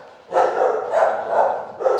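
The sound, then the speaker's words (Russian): Dogs in an apartment bark in a quick, overlapping run that goes on nearly without pause, fairly loud, with a final fresh bark at the end. No one speaks. “Наши звуковые партнеры — это собаки Егора, которые живут вместе с ним”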